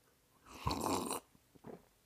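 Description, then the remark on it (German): A single airy slurp lasting under a second as someone sips hot coffee from a mug, followed by a couple of faint soft swallowing or mouth sounds. “ich schlürf mal einen Schluck Kaffee”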